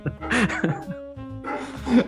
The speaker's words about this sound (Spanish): Encima, justo el perro tiene muy buenos pulmones, güey. Puta el perro.